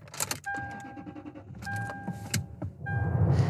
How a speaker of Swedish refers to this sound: ska vi starta bilen? Mm, det gör vi.